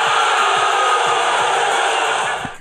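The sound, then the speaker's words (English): A large crowd of Philadelphia Eagles fans boos at the NFL draft as the Eagles select quarterback Donovan McNabb of Syracuse University, in a loud, sustained, steady wash of jeering voices that holds for a couple of seconds before dipping slightly at the end. No individual speech stands out. “Dude, they're booing him”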